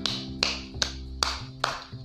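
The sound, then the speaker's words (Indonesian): Five sharp hand claps at a slow, steady pace, roughly two per second, each crisp and bright, over a low continuous hum with no voices. “tetapi pada tahun depan akan menjadi musim ketujuh bagi Hess tepuk tangan yang meriah”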